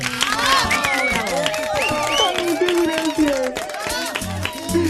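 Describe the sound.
A studio audience applauds steadily for about five seconds, dense clapping running throughout while several voices talk and call out over it.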